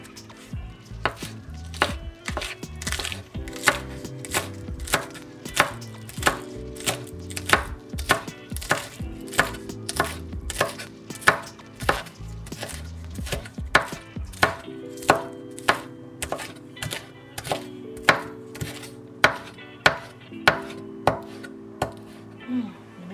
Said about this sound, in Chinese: 葱的部分呢，也是洗干净，然后把它切葱末。我真的很蛮喜欢切葱，我觉得切葱就是一个很疗愈的一个时光。然后你就是听的那个声音，很像 ASMR。好，我让你们听一下。